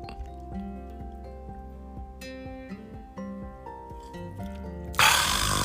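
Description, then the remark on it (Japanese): A few light glass clinks ring out in a toast with apple cider sours against a steady tonal hum, then a sudden loud hiss like fizzing or pouring takes over at the end. No one speaks. “では、乾杯ね、アップルサイダーサワー乾杯”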